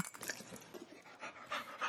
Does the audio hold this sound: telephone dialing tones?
no